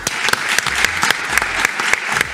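A crowd in Reims, France, applauds the city's mayor, Arnaud Robinet, during a show. Dense overlapping claps make a steady, bright, even rattle that holds at a fairly loud level throughout, with no voices.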